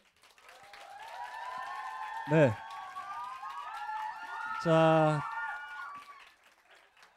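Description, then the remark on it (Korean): An audience claps steadily for several seconds to open a music listening session with a band, the applause swelling and then fading, with scattered cheers and whistles mixed in; a man's voice briefly speaks twice over the clapping. “자, 그러면 한번 안에서 박수 소리는 들으실 수 있을 것 같아요. 한번 박수로 한번 시작을 해볼까요?”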